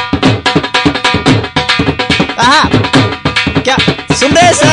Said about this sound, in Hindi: हमारा ढोल वाला भी साथ में ही बैठा हुआ है तो मैं आपको हाँ। थोड़ा सा हमारा बता देता हूँ किस प्रकार का ढोल बसता है ये थोड़ा स्लो वाला सुना दे एक बार